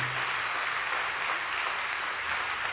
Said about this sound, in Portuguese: Isso é para Deus, irmão? Pode aplaudir forte.